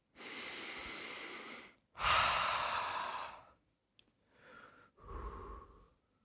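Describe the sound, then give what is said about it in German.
A deep, audible breath drawn in and then let out in a long sigh, clear, followed by a second, softer in-and-out breath with no talking. “Einmal tief durchatmen.”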